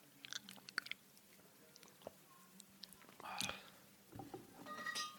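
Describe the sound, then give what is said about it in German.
Crunchy chewing of an Ovo Crunch malty chocolate snack, with scattered crisp bites and mouth clicks over several seconds, intermittent and fairly quiet, with faint whispery breaths in between. “Ja, mir hat es gerade ganz schön irgendwie den Mund weggebrannt von diesem Ovo Crunch.”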